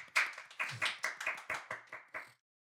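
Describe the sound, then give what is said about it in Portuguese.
A short burst of applause: about nine crisp, evenly spaced hand claps over two seconds, fairly loud, with no voices, then silence. “Uma salva de palmas.”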